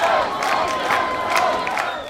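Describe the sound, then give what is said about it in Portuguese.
A crowd shouts excitedly through city streets toward a tournament field in a steady, dense roar, with many overlapping voices rising in brief surges over about two seconds, loud throughout. “Porém, isso não impedia os gritos exaltados rugirem pelas ruas da cidade até o campo de torneio.”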